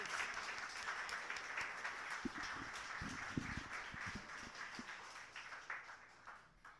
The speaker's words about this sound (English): Let's give her another round of applause here.